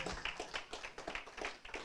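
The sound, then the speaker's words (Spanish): An audience applauding the Lord, with a steady run of quick, crisp handclaps over a soft, continuous wash of noise, fairly subdued in level and with no voices heard. “denle un aplauso al Señor, aleluya.”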